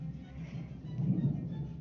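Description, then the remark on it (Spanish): A low rumble of thunder rolls through, swelling briefly in the middle before easing off, with a faint hiss of storm noise underneath and no voices, during a heavy storm at night. “Están los truenos de a peso.”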